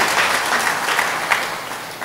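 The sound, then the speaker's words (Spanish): Steady, dense applause from a crowd of people for the King after a prayer, a continuous wash of many hands clapping at an even loudness with no voices standing out. “Ah, un aplauso al Rey, eh, no sea tímido.”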